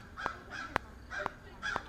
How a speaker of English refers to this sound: Crows are coming after us.